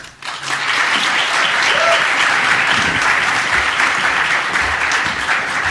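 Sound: audience applause welcoming speaker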